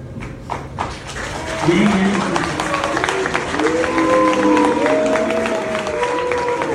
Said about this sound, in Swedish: Ja, det han sa var att Eh, Sverige och EU står enade i att fördöma Hamas och då möttes han först av applåder men sen av burop då när mm. han eh, fördömde Hamas